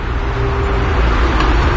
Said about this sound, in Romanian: Și afară văd cum în București tot intră mașini, una după alta, cred că se și aude zgomotul traficului.